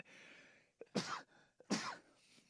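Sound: sneeze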